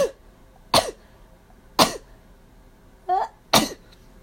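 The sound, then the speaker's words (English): Several short, explosive sneezes with a harsh, cough-like burst quality, spaced about a second apart, fairly loud with no talking. “i know i know my sneezes sound like coughs”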